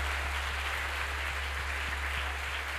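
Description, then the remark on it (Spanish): An audience applauds God, a dense, steady wash of many hands clapping that holds at an even loudness for the whole stretch, with a low electrical hum underneath and no voices. “ese aplauso al que vive por los siglos de los siglos y es Dios.”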